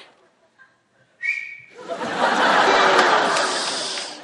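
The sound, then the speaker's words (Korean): A person gives one short, high whistle lasting only a moment, which is immediately swamped by a long stretch of loud, hissing, breathy noise with no clear voice. “짧네요, 조금. 길게 한 번, 길게 한 번.”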